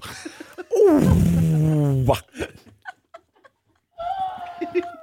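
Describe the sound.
A person loudly imitates the call people use for pigeons, giving one long, warbling, throaty sound, followed by a few mouth clicks and a shorter voiced cooing sound.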